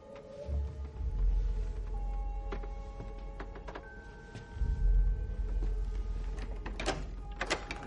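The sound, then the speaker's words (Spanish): A door bearing a sign reading Sirius, in the Black family house, is opened with a low rumbling scrape and a faint sustained tonal whine, punctuated by a few sharp clicks and clunks; a brighter rattling burst comes near the end. No one speaks. “Abre y observa la habitación desde el umbral.”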